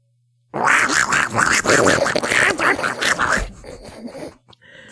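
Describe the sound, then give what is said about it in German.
A voice imitates Donald Duck, a run of raspy, buzzy quacking syllables in quick rhythm lasting about three seconds, then trailing off into quieter garbled sounds. “sollte äh. Donald Duck sein.”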